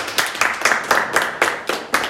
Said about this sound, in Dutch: Zo, nou, ja, standaard ritueeltje, was Even klappen. iedereen.